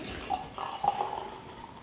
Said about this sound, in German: Brauchen heute keine sieben Minuten zum äh, Einschenken.